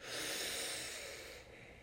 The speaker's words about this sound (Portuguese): Vamos tomar aquela respiração bem profunda para começar a sintonizar? Inspira pelo nariz